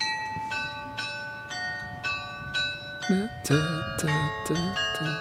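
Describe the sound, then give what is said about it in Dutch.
An automatic carillon mechanism plays its hourly tune, 'Lourdes op de Bergen', as a slow melody with one bright bell strike about every half second and each note ringing on. Partway through, a voice starts talking over the chiming. “Er zijn drie muziekjes die gespeeld worden door het automatisch speelwerk, wat men dus daar de bijaard noemt.”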